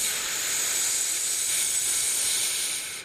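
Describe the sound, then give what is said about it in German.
A single deep exhalation through the mouth, a long, steady, breathy rush of air that lasts about three seconds before trailing off, with no talking. “Und beim Einatmen daran zu denken, frischen Sauerstoff aufzunehmen. Und beim Ausatmen alles Schlechte, die verbrannte Luft, falls es sowas gibt”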